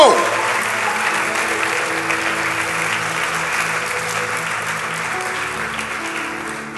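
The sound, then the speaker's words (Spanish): An audience applauds steadily for several seconds, a dense wash of many hands clapping at a constant loud level, with a low sustained musical tone beneath it. “¿Cuánto le damos un aplauso a Él?”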